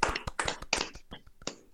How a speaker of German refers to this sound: Lass uns applaudieren für uns.